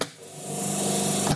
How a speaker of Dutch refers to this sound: Mijn lijmafzuiging. Deze machines staan nu stil.